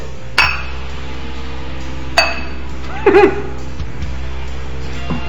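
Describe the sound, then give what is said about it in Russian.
Glasses clink together in a New Year's toast: two bright, ringing taps a couple of seconds apart, then a quick flurry of clinks, all clear over a low steady hum. “всем слушателям в других часовых поясах бокал поднял.”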